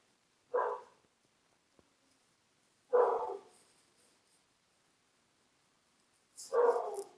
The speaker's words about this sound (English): Can you hear my dog? That's Maddie.